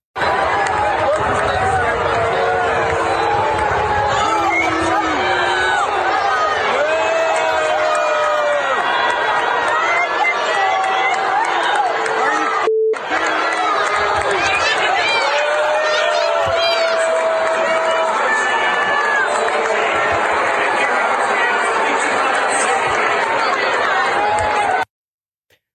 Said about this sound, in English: But the fans, listen to the fans booing here. This this is uh, pretty harsh.